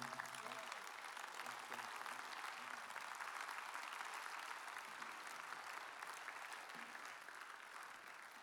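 A crowd claps steadily for several seconds, dense sustained applause, with a few faint voices underneath near the start.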